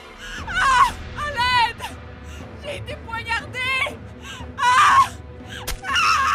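A woman screams in a series of anguished, wavering bursts as an attacker stabs her three times, several cries rising and breaking with short gasping pauses between, loud over a low background rumble.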